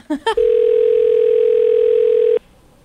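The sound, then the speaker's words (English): A telephone call to a CVS Pharmacy ringing through: two quick electronic blips, then a loud, steady, mid-pitched ring tone held for about two seconds before it cuts off. No voices. “We called the pharmacy to see if they would help Thelma give her sister an enema.”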